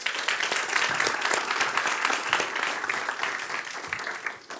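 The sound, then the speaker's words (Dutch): Sustained applause from a lecture audience welcoming the speaker, a dense crackle of many hands clapping at a steady level for several seconds. “Fijn om al applaus te krijgen dat ik nog niks heb gepresteerd.”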